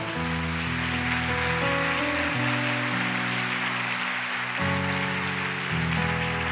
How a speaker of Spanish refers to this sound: ¿Cuánto le dan un fuerte aplauso al Señor?